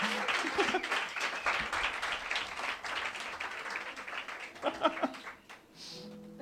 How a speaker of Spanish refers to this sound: Compañeros, un aplauso y arranca el concierto de … con su pedazo de banda.